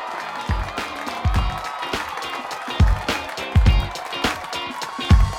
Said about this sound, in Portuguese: Palmas.